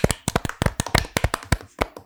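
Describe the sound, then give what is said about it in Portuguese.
Hands clap sharply and repeatedly, about a dozen crisp, loud claps in a quick, slightly uneven rhythm, like a small group applauding together, with no talking over them. “Nos últimos episódios a gente tá batendo muita palma, né?”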